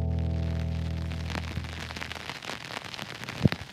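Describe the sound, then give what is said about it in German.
A steady, crackling patter of rain with scattered sharper drops, following a sustained musical tone that fades out in the opening second. “regnet halt seit langem mal wieder.”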